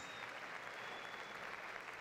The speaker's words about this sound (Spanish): Ah, alguien tiene que dar un aplauso al Rey de Gloria.